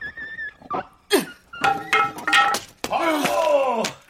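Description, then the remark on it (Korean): A dog named Miu barks loudly and excitedly, a rapid string of sharp barks running into longer, whining howls, with no one talking over it. “아 저기 뭔데 개가 엄청 짖네 아씨 조용 미우야 조용 좀, 좀 시끄러!”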